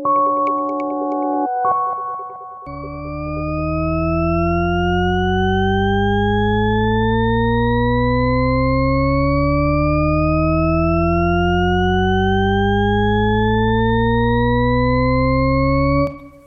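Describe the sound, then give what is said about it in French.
A Shepard tone: layered tones glide steadily upward for about thirteen seconds, loud and unbroken, seeming to rise forever without getting higher, after a short burst of steady held notes. “Ce que vous venez d'entendre s'appelle la gamme de Shepard, en anglais le Shepard Tone, pour ceux qui voudraient euh, le réécouter, vous avez eu l'impression d'avoir une note qui monte jusqu'à l'infini.”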